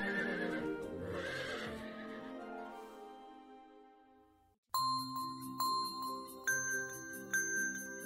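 A horse lets out a long, wavering whinny that fades away, then after a brief gap comes a steady clip-clop of hooves, about four bright, ringing beats with a bell-like chime.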